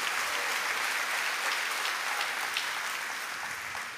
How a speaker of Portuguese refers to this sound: Quem está recebendo esse milagre de Deus na tua vida? Pode dar uma salva de palmas ao Senhor.